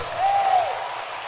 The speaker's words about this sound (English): Can you clap your hands for this verse? Shandala Bakata. Keep clapping. I feel excited.